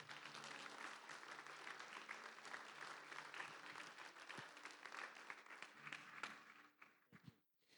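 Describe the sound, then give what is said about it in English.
An audience at a Christian worship service applauds steadily, giving Jesus a hand, dense overlapping claps going on for several seconds before tapering off abruptly near the end. “Okay, can we give Jesus a hand?”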